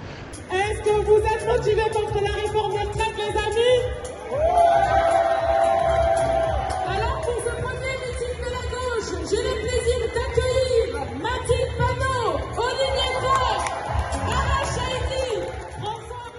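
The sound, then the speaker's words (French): A crowd of more than 1000 people at a NUP left-wing political rally fills a hall in Paris with a dense, steady roar of voices, chanting and cheering in loud unison waves that swell and dip without pause. “Il y avait beaucoup de monde à ce meeting, plus de, plus de 1000 personnes dans une salle à Paris.”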